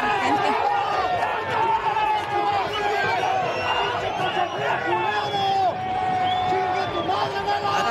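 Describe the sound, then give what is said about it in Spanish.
A large stadium crowd yells and jeers insults at a player from the opposing team as he plays, a dense roar of many overlapping voices that stays loud and steady for the whole stretch, with individual shouts rising out of the din. “Pues, él estaba jugando, haciendo su chamba, pues sí, estaba en el otro equipo, pero pues que ¿para qué gritarle de esa manera?”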